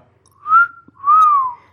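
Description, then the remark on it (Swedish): Two breathy whistled notes from a person whistling into a microphone with a pop filter, each rising and falling smoothly around one pitch, with a short gap between them; no talking. “Alltså jag är så dålig på att vissla.”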